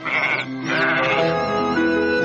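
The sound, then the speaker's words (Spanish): A lamb, which a farmer is about to slaughter, bleats loudly, a long wavering cry that breaks briefly and then resumes, sustained and quavering for a couple of seconds with no talking. “Voy a sacrificar al cordero.”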